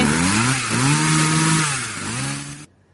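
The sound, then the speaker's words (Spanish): A chainsaw roars loudly and steadily, its engine pitch rising and dipping as it revs, then cutting off abruptly just before the end. “¿Eso es una motosierra?”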